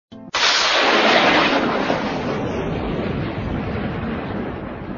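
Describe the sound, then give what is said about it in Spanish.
A sudden loud crack of thunder bursts in and rolls on as a heavy, broad, powerful rumble that slowly fades over several seconds, with no voices. “y fueron hechos relámpagos y voces y truenos”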